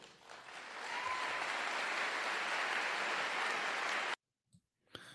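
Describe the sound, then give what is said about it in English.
A large church audience at Fielder Church bursts into a sustained, dense ovation for Pastor Paredes after he says the church has female pastors, many hands clapping together in a steady roar for about four seconds before it cuts off abruptly, followed by near silence. “Well, and they're they're clapping. There's an ovation for uh, Pastor Paredes uh, um, when he says that they have female pastors in the church.”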